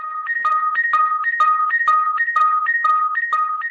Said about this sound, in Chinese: 哎，这是什么声音啊？像是从我胸口传来的。 迪迦。这是能量消耗提示，我的火焰能量已经无法支持变身形态。